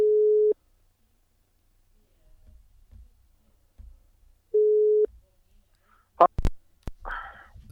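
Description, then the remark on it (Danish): Two steady electronic ringback tones on an outgoing phone call, each lasting about half a second, separated by quiet rustling and faint murmuring, followed by a few sharp clicks and brief noise. “Men lad os få ringet til, øh,”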